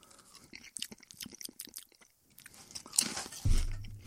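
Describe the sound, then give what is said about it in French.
Crisp, repeated crunching of sour cream and onion potato chips being chewed, sharp bites in an irregular rhythm, with a louder burst of crunching and a low thump toward the end; no talking. “Ça goûte zéro le sour cream.”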